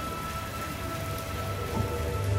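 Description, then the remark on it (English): Steady, dense hiss of heavy rain pouring down, an even wash of noise with a faint low rumble underneath, with no voices. “Looks like it's about to pour.”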